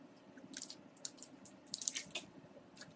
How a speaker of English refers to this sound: This is awesome. Britannia walk, tap water in a clean, you know, filter water bottle.